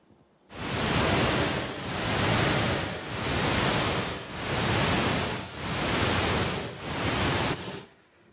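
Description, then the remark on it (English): Steady hiss of pink noise swelling and fading in slow, even pulses, about six rises in seven seconds, loud with no voices, like a rhythmic surf-like whoosh; a deep-sleep stimulating sound whose bursts match the frequency of brain waves in deep sleep. “when we detected that people were in deep sleep, we played the deep sleep stimulating sound that was shown to make them have deeper sleep.”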